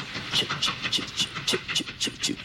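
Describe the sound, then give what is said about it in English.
A train at a train station rattles along with a steady clickety-clack as it picks up speed, sharp metallic clatters repeating about three times a second and gradually quickening, loud, with a low rumble underneath and no voices. “So "I listen to the train. The train's going off.”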